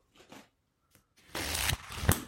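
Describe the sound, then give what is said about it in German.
Paperback book pages being flipped: a few soft papery taps, a short pause where a bookmark sits, then a loud continuous riffle of pages ending in a sharp snap. No one speaks. “Und ich habe es ein Papier gekauft. Paperback. Wie klingt es?”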